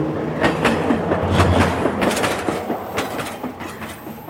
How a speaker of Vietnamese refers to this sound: Bây giờ là 8 giờ sáng và mình đang ngồi trên tàu đi vào trung tâm Sydney để làm việc.